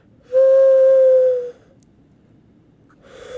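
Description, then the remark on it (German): A person mimics an owl with one long, steady hoot lasting about a second, loud and slightly falling in pitch, followed by quiet and a faint breathy noise at the end. “und der, der, äh, die Eule wäre...”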